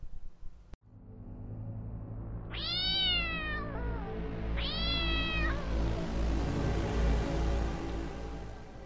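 A cat lets out two long, wavering meows, one after the other, over a low, steady rumbling drone. A sharp click comes just before. No one speaks.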